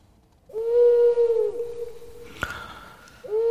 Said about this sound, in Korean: 어, 부엉이 소리군요. 네. 전설의 고향 느낌이 나네요.